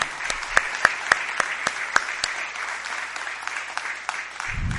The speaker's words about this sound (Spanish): Me refiero al compañero Andrés Arroyo, que sus familiares están aquí presentes, para lo cual pido un fuerte aplauso por esa lucha que nos legó y que hoy la mantenemos.